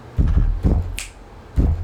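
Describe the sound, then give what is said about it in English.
A sharp finger snap cracks once in the middle, set against a few deep, booming low thuds that pulse at an uneven beat, with no voices present. “adding, yeah booms and claps and snaps yeah.”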